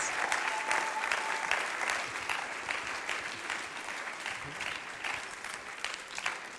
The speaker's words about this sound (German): Komm, geben wir einen Applaus.